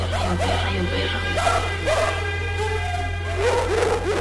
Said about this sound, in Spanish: Son. Son ladridos, son solo. Son solo ladridos que están grabados.